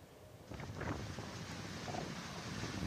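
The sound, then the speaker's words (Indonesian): Strong hurricane wind from the Category 1 storm Nora roars and buffets steadily over the southwestern Gulf of Mexico region, a broad rushing noise that swells after the first half-second, with no voices present. “Video menunjukkan wilayah barat daya Teluk Meksiko yang tengah diterjang badai Nora.”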